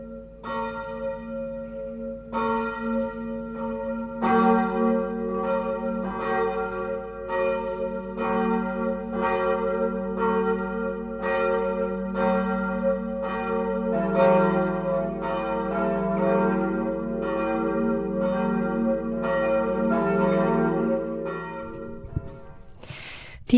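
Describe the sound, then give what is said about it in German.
Church bells peal continuously for the Angelus prayer, several bells striking in a steady overlapping rhythm with rich, sustained ringing tones that layer and hum, loud, with no voices. “Dieses Glockengeläut kennen Sie, liebe Hörerinnen und Hörer.”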